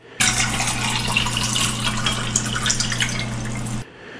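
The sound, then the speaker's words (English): Room-temperature soda pop pours steadily into a glass to imitate the sound of beer, in one continuous gush lasting a few seconds, with a low hum beneath it, starting and stopping abruptly. “To pour the beer, we took a soda pop at room temperature and poured it into a glass.”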